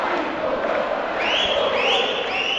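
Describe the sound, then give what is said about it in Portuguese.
A large crowd of São Paulo basketball fans roars and cheers continuously at the Morumbi, waving flags, with high-pitched shouts and whistles rising and swelling over the dense, steady wall of noise. “E o torcedor fazendo uma festa linda para o ouvinte.”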